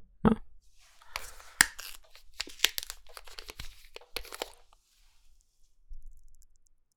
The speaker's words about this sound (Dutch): Ik hoor wat bubbeltjes, maar volgens mij is het eh, geen uh, met bubbels erin. Alleen een beetje van die laatste paar bubbeltjes die je wel hebt als je iets...